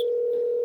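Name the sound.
busy tone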